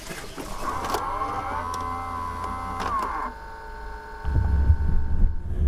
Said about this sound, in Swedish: Den här dörren har väldigt härligt ljud.